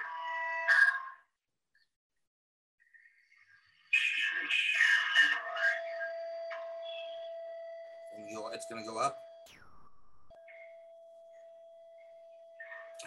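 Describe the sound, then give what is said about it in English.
Electronic tones: a steady, mid-pitched sustained beep holds for several seconds, with fainter higher tones above it, broken by bursts of crackly, garbled noise and short chirps. “These tones are interesting.”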